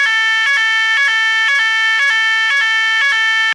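A loud, steady alarm siren alternates between two pitches about every half second, a harsh electronic two-tone wail that repeats evenly, with no voices.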